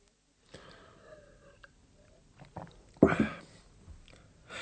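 Someone takes a sip of beer: soft wet mouth noises, then a louder swallowing gulp and a short exhale, with no one talking.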